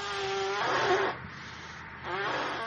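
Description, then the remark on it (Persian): A balloon is being blown up: two strong, breathy puffs of air, each with a thin rubbery whine, separated by a short pause. “داره باد میشه بادکنکه بله ترکید”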